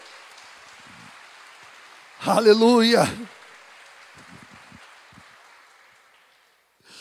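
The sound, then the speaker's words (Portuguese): A crowd claps steadily in a dense, hissing wash that fades near the end, while a man's voice briefly calls out over the applause; the applause is given in praise of the Holy Spirit. “Aplauda bem forte a Ele nesta noite.”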